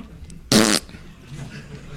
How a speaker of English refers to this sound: How fantastic is that? The fart sounds and everything.